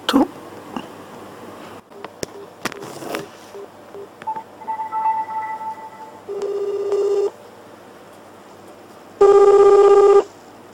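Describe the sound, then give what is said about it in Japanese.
A phone being handled, then a series of short dialing tones, followed by a ringback tone that rings once and then again, all clear with no voices, as a call is placed to a grandmother. “誰に電話しようかな久しぶりだから声が出ないな電話してみよう”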